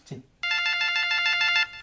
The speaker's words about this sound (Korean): 아, 이 시간에 또 뭐 전화질이야.